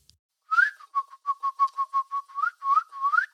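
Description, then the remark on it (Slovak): A person imitates a bird's peeping, leaning over with cupped hands held to a girl's ear as if holding a small bird, with a rapid string of about a dozen short, high whistled chirps, some rising in pitch, fairly steady in rhythm and moderately loud, with no talking. “Prikladám dlane zvierajúce vtáčika k jej uchu a skláňam sa, aby som pridala aj pípanie.”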